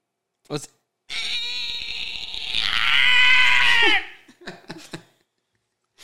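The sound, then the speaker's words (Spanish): A voice mimics the strain of giving birth: one long, high, wavering wail lasting about three seconds, then a few short, loud, choppy grunts. “ahora sí empezó la pujadera y hacer escándalo para que Cronos dijera, ah, ya, ya van a ser, ya está en labor de parto”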